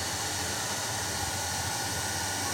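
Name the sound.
hair dryer blowing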